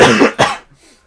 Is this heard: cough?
yes